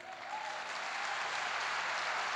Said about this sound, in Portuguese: Aplauda Jesus por isso.